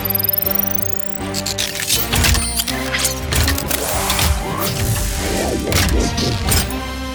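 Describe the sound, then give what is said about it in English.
A busy cartoon effect of a vehicle transforming into a Super Hoover: rising whirs give way to a fast run of clanks, thumps and mechanical clatter layered over humming tones, loud and continuous for several seconds with no talking. “Initiating Super Hoover transformation.”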